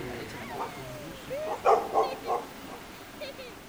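A dog barks in a short run of three or four sharp yaps, moderately loud, with a softer bark trailing after, over a quiet background.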